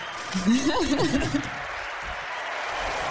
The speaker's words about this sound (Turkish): O zaman bir alkış da ona gelsin.